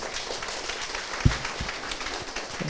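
An audience applauds to welcome everyone at the morning opening of the Độc Quốc Khánh Show, an event on staff management with the OKR method; many hands clap in a dense, continuous patter at moderate volume, with one sharper thump partway through and no voices.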